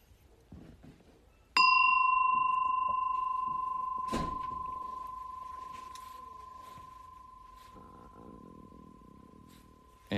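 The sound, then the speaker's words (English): A single meditation bell is struck at the start of a meditation session, ringing out with a clear, pure tone and bright overtones that slowly fade over several seconds, with faint room noise beneath and a soft second touch midway. “So I'm going to ring my bell.”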